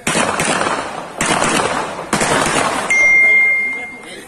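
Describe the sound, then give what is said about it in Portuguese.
Loud bursts of rapid gunshots in an exchange of fire during an armed robbery in Brazil come in several clusters, each a dense crackling volley, with a shrill ringing tone rising near the end and voices faintly mixed in. “É armas abrigadas, apavoradas, vem de troca de tiro.”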